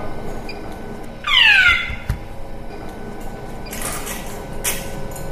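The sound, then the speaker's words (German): A short, fairly loud mechanical whine sweeps downward as a radiation therapy machine starts moving to its second treatment field, followed by quieter motorized whirring and two airy hissing bursts over a steady low hum. No one speaks. “Wir fahren jetzt zum zweiten Feld.”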